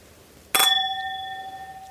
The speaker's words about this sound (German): Prost. Prost. Ich finde das Geräusch von diesem Glas. Können wir das nochmal machen?